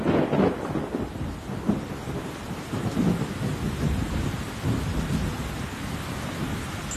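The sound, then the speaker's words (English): A thunderstorm with heavy rain pouring steadily throughout and deep thunder rumbling underneath, loud, with no voices. “So, if we think of the thunderstorms and the stormwater drainage infrastructure that Hannelie spoke of, it often gets blocked or can't cope with all the water.”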